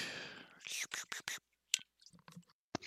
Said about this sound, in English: Um, get a sip of water real quick.